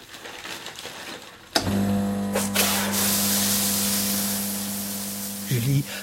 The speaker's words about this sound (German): Ok, on n'attend pas que ça pue dans tout le couloir. va mettre du désodorisant, s'il te plaît.